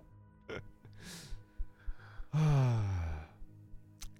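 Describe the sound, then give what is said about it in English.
A voice imitates an acid sac being pierced and spewing everywhere: a few short breathy puffs, then one loud, gushing raspy blast lasting under a second before fading off. No words are spoken. “Okay, you take 11 points of acid damage as you extricate the acid sac, unfortunately piercing it in the process, and it spews everywhere. Essentially, you just hear like a, a, a very loud as I like wing my hand out.”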